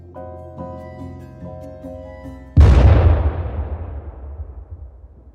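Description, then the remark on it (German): A sustained, low tonal drone gives way to a single loud hand grenade explosion, the grenade thrown at two German soldiers at a street corner; its deep rumbling blast slowly decays over the next few seconds. No one speaks. “holte blitzschnell seine Handgranate heraus, zog den Ring und warf sie auf zwei deutsche Soldaten.”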